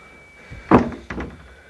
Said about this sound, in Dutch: Ja, de lift.